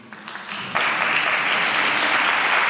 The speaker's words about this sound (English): it's, it's a good cheer, but I don't deserve your applause because uh, I've got a little too much Homer Simpson in me.